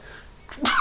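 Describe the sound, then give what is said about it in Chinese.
A single sharp sneeze, with a quick breathy intake followed by a loud, bursting 'achoo' that carries a brief voiced tone at its end. No talking is heard. “我打个喷嚏啊！”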